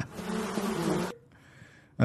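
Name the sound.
flies buzzing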